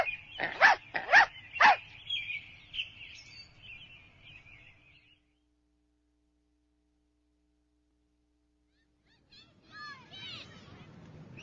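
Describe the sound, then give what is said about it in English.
A dog, the family dog Wilbur, barks three times in quick succession, loud, followed by a thinner whining tone that fades out; after a pause, faint chirping sounds appear. “I take walks with my big brother, Bill, and our dog, Wilbur.”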